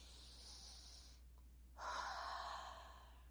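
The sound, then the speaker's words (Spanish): A slow, deep breath drawn in through the nose, a short pause, then a fuller, louder exhale. Quiet with no talking. “Ah, toma una respiración muy profunda.”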